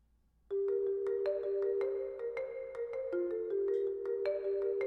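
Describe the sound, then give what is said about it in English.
A loud, sustained Amber Alert emergency tone from a vibrating cell phone, a harsh, high-pitched pulsing warble of steady pitches that starts abruptly and blares continuously with no voices. “It's the middle of the night, and your cell phone starts to vibrate and make an annoying, high pitched noise.”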